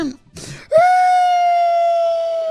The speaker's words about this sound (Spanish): ¿Por qué chilla? ¿Por qué está llorando?